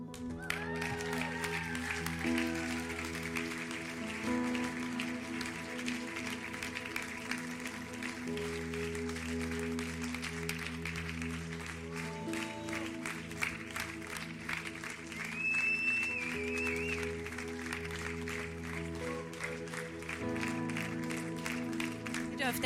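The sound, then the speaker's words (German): An audience claps steadily for a sustained stretch as people from ISF Bern are called onto the stage, the dense applause mixed with voices and low sustained tones. “Wenn er nochmal klatschen, genau.”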